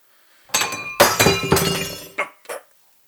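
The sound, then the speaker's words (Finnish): A wine glass shatters: a sharp crash followed by a second burst of breaking glass, then a few bright tinkling fragments settling. Loud, with no talking. “Siinä meni viinilasi.”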